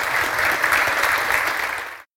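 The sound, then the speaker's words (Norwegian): Steady audience applause for two speakers at the end of a live conversation, a dense crackle of many hands clapping at a fairly loud, even level for about two seconds before stopping abruptly. “En varm applaus til begge to.”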